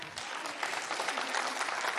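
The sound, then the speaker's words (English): A crowd of people applauds, a dense, steady wash of many hands clapping at once that swells slightly louder after the first half second and holds for the rest. “Yeah, you can clap for that.”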